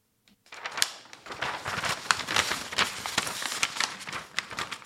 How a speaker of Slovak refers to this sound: Hmm, tentokrát bez jingla, verím, že ste pochopili, že toto bol zvuk papiera.